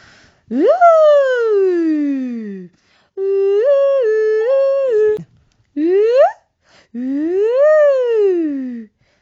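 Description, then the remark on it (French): A voice imitates an American police or ambulance siren as a vocal warm-up exercise, in four loud wails with sweeping rises and falls into the high register and one stepped two-tone stretch. No other sounds accompany it. “Euh, un des exercices euh, très bien aussi pour euh, chauffer sa voix, c'est de faire des sirènes américaines, les sirènes de, de, de services de police ou d'ambulance.”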